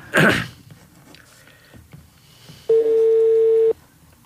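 A short burst of noise opens, then a loud, steady telephone line tone sounds once during a phone call for about a second before cutting off abruptly. Otherwise it's quiet, with no talking.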